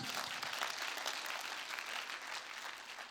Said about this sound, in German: Unser H2O-Team, was glaube ich, kenne kaum ein Team, was so regelmäßig draußen ist. Mega Applaus für euch, ganz kurz und knackig.